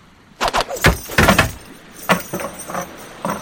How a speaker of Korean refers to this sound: 일본의 배가 도망치지 못하게 쇠사슬로 만든 갈고리를 던져서 붙잡은 다음 대포와 화살 등으로 돌아가며 공격을 하였다.